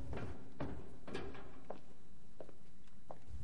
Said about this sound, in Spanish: Se detiene frente al portón de una nave industrial y lo abre. Baja una escalera.